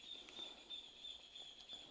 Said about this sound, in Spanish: Bueno, ahora es de mañana acá. Estoy grabando si se escuchan los pajaritos cantar.